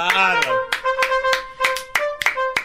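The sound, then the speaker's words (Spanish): Steady rhythmic clapping, about eight sharp claps at an even beat of roughly three per second, ringing over a sustained, held voice tone. “Está aplaudiendo”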